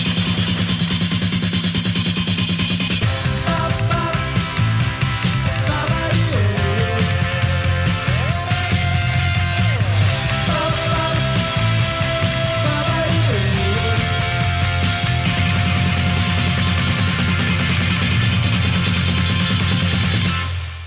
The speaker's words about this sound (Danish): Det her det var en uh, lille bit bid af en tidlig udgave af hittet … fra …-albummet